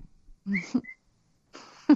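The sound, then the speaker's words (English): A pet cockatiel named Boo Boo lets out a short, high whistling call with a brief rising note, then after a pause a scratchier, noisier chirp; no one speaks. “You have a videos. cockatiel, right?”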